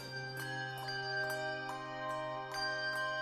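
A handbell choir rings a steady melody, bright chimes struck about twice a second over a sustained shimmer of overlapping tones, close and moderately loud, with no voices.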